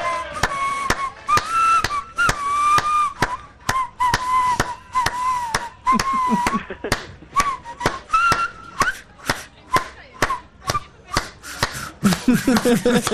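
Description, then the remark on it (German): A steady, wavering whistled tune carries fairly loud over a brisk, regular rhythm of hand claps, with a burst of laughter breaking in near the end. “ich kann nicht lachen und pfeifen.”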